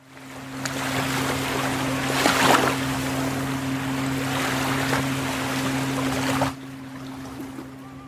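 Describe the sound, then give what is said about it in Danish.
Steady wash of waves at the beach at Tangkrogen in Aarhus, with one louder surge of surf partway through, over a constant low engine-like hum. The sea noise drops away abruptly near the end. “sådan en dag som i dag, hvor jeg går på stranden ved Tankrogen”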